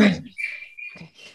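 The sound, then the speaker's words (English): Small pet birds chirp and tweet in the background: a few thin, high whistled notes, one drawn out briefly, moderately faint. “So absolutely, and as always, my darling birds are very sad that they're not fully participating in the podcast. So you might hear them chirping in the background.”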